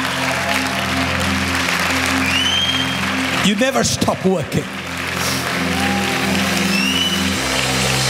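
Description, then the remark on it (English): A large crowd, standing, claps hands steadily and continuously for Jesus, a dense wash of applause layered with music and a voice singing or speaking over it. “Go ahead, stand up to your feet, give Jesus the best hand clap you can give.”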